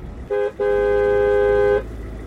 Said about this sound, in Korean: 교차로를 지나면서 차들이 속도를 늦췄다. 누가 뒤에서 짧고 날카롭게 경적을 울렸다.